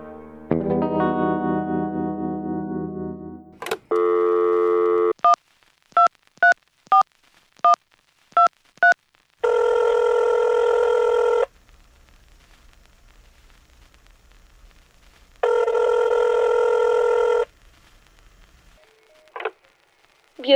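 A phone call being placed to the Słoneczko travel agency: a steady tone, a quick run of seven dialing beeps, then two long buzzing ring tones separated by a pause, ending with a short click as the line picks up.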